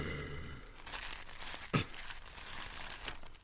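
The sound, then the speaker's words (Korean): Fairly quiet crinkling of a small sheet of paper bearing a brief written message, with irregular rustles and a sharper crackle partway through, heard on its own without any talk. “과인이 여기 작은 종이장에다 선유에 관한 뜻을 간단하게 적었는데 이것을 장도사에게 살짝 건네주려고 하였다”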